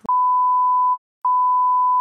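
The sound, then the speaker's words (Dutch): A loud, steady mid-pitched censor bleep sounds for almost a second, cuts out briefly, then a second identical bleep follows, bleeping out a spoken surname. No voices are audible beneath the tone. “Oh want het is grappig, maar wij moeten wegpiepen, maar daar hebben we een probleem.”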